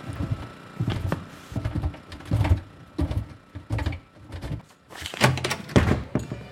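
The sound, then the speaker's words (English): A door is swung open into a person, banging and thudding several times, a string of heavy, irregular knocks and clunks with brief pauses between them, and no voices. “You just opened the door right into that oh guy.”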